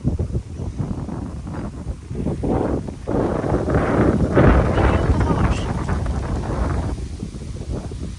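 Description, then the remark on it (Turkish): Outdoor wind buffets the microphone with a steady, loud low rumble and gusty rushing that lasts the whole time, while a person talks underneath it. “Umarım rüzgarın sesi çok fazla rahatsız etmiyordur sizi.”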